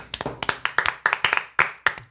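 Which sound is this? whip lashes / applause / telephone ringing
applause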